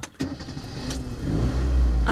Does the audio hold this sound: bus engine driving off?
yes